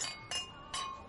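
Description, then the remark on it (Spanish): Glasses clink together several times in quick succession in a toast to cryonics, each bright tap leaving a thin ringing tone that hangs between strikes. The sound is clear, with no voices. “Vamos a brindar por la crionización.”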